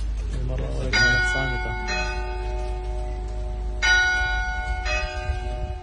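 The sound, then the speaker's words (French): Three newly cast church bells, made in Normandy, ring at the convent church of Notre-Dame de l'Eure in a slow, steady peal: several strikes about a second apart, each leaving a long, shimmering hum that overlaps the next. A voice is heard briefly at the start. “et le chantier de l'église du couvent Notre-Dame de l'Eure, où sont arrivées les trois nouvelles cloches fondues en Normandie.”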